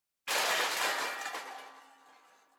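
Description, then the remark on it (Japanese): A sudden, loud crash as a table and chairs in a room are hurled against a wall, breaking and clattering in one burst that echoes through the room and fades out over about two seconds. No voices. “突如として部屋にあるテーブルや椅子を壁に向かって投げつけた。そのため大きな物音が部屋中にこだました。”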